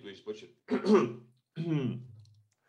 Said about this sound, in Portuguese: vou, vou tossir aqui